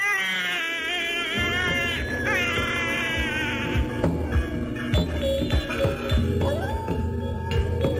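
A feverish infant sobs in wavering, high-pitched wails during the first half. As the child is wrapped in medicinal leaves warmed on a brazier, the crying fades into quieter whimpers over a low, throbbing rumble with scattered soft knocks.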